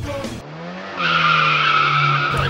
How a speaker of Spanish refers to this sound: Un auto repleto de adolescentes se arrimó a toda velocidad al cordón de la vereda produjo una verdadera ola